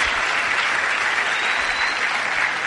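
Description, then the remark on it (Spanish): Sustained audience applause at a Spanish-speaking organization's event, called for in honor of the team's direct diamond executives, a dense, steady wash of many hands clapping at an even loudness throughout, with no voices standing out. “a quien les pido un fuerte aplauso, porque gracias a ellos,”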